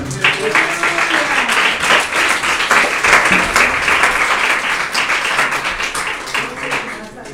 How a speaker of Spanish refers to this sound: Ese pan, hermano, Denle ofrenda de palmas al Señor.